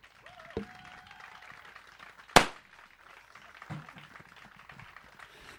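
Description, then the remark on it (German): A confetti cannon fires with one loud, sharp bang that fades in a brief rustling burst, preceded by a smaller pop, over a low background hiss. “Ja, es macht verdammt Spaß, mit Konfetti rumzuballern.”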